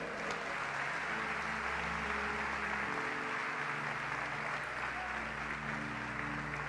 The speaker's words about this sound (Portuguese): Você pode dar glória a Deus, um aplauso ao Senhor neste dia.